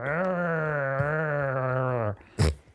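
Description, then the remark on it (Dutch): A person imitates a groggy, hungover bear with a long, steady, droning groan lasting about two seconds, then gives a short, rough grunt at the end. The voice is loud. “Van dat geld kan je om de 30 meter een student neerzetten die het geluid nadoet van een beer. Niet de bruine beer, maar de brakke beer.”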